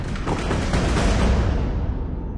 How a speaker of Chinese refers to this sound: 猫头鹰飞上云端，正得意自己抢着了好宝贝，一听说是炸药，掉头便向湖水中冲过去。只听轰隆一声，湖水四溅开来，湖心爆裂的声响都要把人耳朵震聋了。